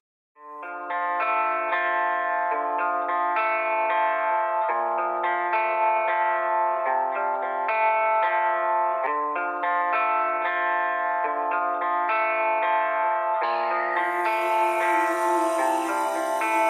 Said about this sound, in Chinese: 接下来呢，让我们听一首音乐，轻松的休息一下。接下来这首歌呢，是我们一位新生代饶舌歌手的创作。